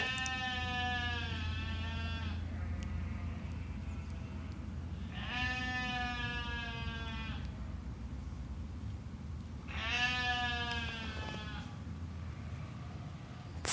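Two sheep that had fallen behind bleat three times, each a loud, quavering cry lasting a second or two, spaced several seconds apart over a steady low background rumble, with no one talking.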